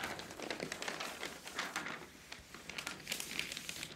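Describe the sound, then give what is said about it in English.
Newspaper pages rustle and crinkle as someone reads the paper, a steady stream of soft papery crackles and light taps for several seconds, fairly quiet with no voices. “decided to read the paper for a little while.”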